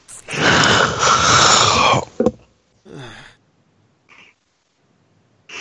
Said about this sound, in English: yawns in my ear.